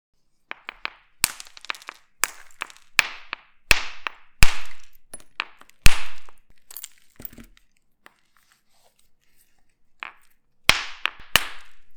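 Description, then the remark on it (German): Sharp, clacking cracks of flint being knapped to make a knife, struck again and again in irregular bursts, with a brief pause before a final flurry of quick strikes and snapping shards. “Ich würde mich freuen über jeden, der kommt, aber jetzt sage ich dann das Feuerstammesser basteln.”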